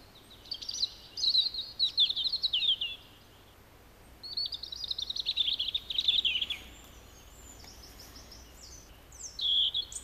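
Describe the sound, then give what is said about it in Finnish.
A bird sings high, thin, sparkling warbled phrases in separate bursts with short pauses between them, clear, with no talking. The song has been altered: it begins as a European robin's song and gradually turns into a common blackbird's song. “Hiljalleen alkoi punarinnalla, mutta kääntyi sitten mustarastaaseen.”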